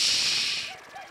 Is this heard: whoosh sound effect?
yes